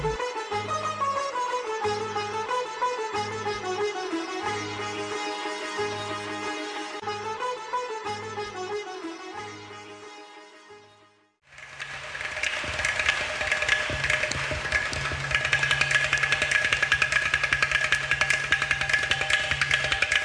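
Ghatam clay pot percussion plays a song: steady, rhythmic low thumps under a bright melodic line. After a brief dip, the music returns denser and buzzier. No one speaks.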